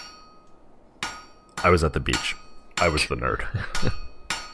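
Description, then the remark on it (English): A jar breaking: a series of sharp glassy crashes and clinks, several separate impacts spread over a few seconds, with a person briefly talking among them. “I think that's the sound of jar breaking.”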